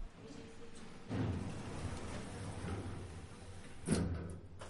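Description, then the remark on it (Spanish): Elevator doors slide shut: a low mechanical rumble starts abruptly, runs steadily for a few seconds, then ends in a soft thud as the doors meet. No voices. “Las puertas se cierran.”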